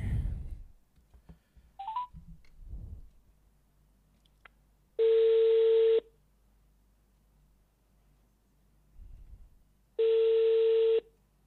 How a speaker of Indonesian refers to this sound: kita coba telepon.